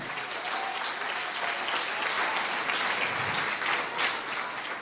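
A crowd in a church claps steadily for a participant for about five seconds, a dense, even patter of many hands at a constant loud level with no talking over it.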